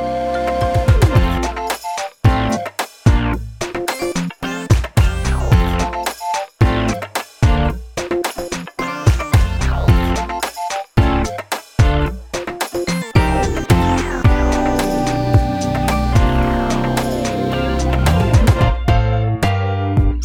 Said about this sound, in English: we would like to thank Louis Zong for our spectacular theme music, which you're about to hear right now